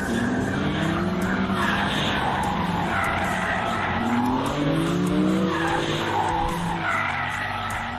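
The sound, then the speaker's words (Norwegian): A BMW M car drifts on a track with a loud, continuous tire squeal layered over a roaring engine, the pitch of the screech wavering steadily for the whole stretch, with no talking. “Bilen vil gi deg en oversikt over hvor flink du er til å drifte fra null til fem stjerner, til og med vinkel”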